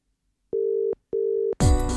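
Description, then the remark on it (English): Two short, steady electronic phone tones beep in sequence with a brief pause between as a phone call is placed from a tiny room, then a loud, dense burst of sound abruptly cuts in. “I'm going to make a phone call, and if it works, I shall thank the gods.”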